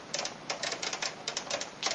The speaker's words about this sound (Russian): у меня, например, кнопки все выпуклые, ручка вот издает такие щелчочки,